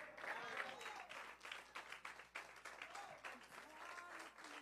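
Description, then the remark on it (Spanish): An audience applauds the Father (God) for about ten seconds, a dense, steady wash of many hands clapping that continues throughout, with scattered voices faintly mixed into the noise. “Alguien puede aplaudir al Padre por 10 segundos y decirle, gracias porque sé que voy a pasar al otro.”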